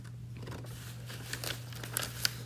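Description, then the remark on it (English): Quiet crinkling and crackling of a paper bag being crumpled, a few sharper crunches near the end, over a steady low electrical hum, with no voices. “But then they had a red alert because the evil paper bag was attacking the city.”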